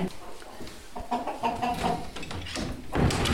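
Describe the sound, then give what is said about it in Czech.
Several chickens of a breeding flock cluck and murmur in their coop, a steady overlapping chatter of short, irregular calls with a slightly louder burst toward the end. “Teď tady jdeme do obýváku dalšího kmene.”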